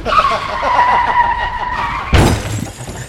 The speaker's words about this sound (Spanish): se escuchó un choque allá afuera.